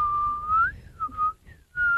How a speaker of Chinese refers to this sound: 卡梅利多吹着口哨独自走了